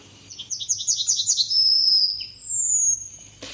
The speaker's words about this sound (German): Ja, ich will einfach ähm, nur die Goldammer hören.